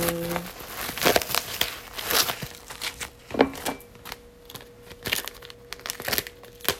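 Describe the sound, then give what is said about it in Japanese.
A plastic meat package being opened, with irregular crinkling and crackling bursts and a few sharper tearing rips spread over several seconds, moderately loud with no talking. “お肉を開けます なんか不思議な感じお肉を開けますよ”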